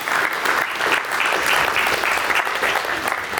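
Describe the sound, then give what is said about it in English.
A dense, steady round of audience applause, loud and sustained throughout with many overlapping claps and no pauses. “a round of applause.”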